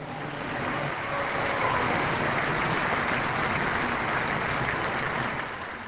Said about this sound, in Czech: Pozdravme Čikitungu a všechen paraguajský lid potleskem.